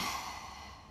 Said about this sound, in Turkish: evet, bir nefes alıp verdim.